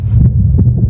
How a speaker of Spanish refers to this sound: Tengo que reconocer que no veo una gran diferencia, por lo menos yo con mis oídos profanos, con la fuerza del corazón, que suena así.